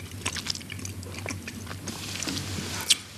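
Close-up chewing and biting into chocolate: a steady run of small moist crunches and clicks, with one sharper bite near the end, over a faint low hum and no talking.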